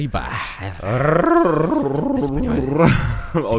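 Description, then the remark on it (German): A person imitates a creature's growl by rolling the R and changing the sounds: a loud, wavering voiced rumble that rises and falls in pitch for a few seconds. “Aber du kannst es perfekt äh, äh, äh, simulieren, indem du einfach das R rollst und dabei deine Laute änderst.”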